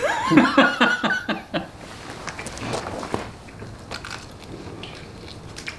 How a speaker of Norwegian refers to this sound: Men nå skal vi spise disse pylsene fra Kvenningens gårdsprodukter, så skal vi se.